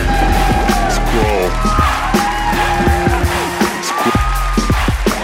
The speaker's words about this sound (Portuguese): uma salva de palmas para a Carola Lima